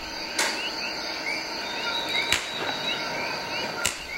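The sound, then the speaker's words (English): Three sharp, metallic snips as biologists cut an escape hole in a chicken wire cage holding 10 Puerto Rican parrots, spaced a second or two apart, over a steady night chorus of buzzing insects and chirping frogs in a rainforest. No one speaks. “Deep in the rainforest, 10 Puerto Rican parrots sleep soundly as biologists creep up and cut an escape hole in their chicken wire cage.”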